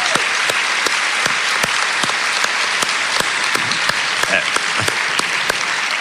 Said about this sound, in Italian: io vorrei che voi gli faceste un grande applauso.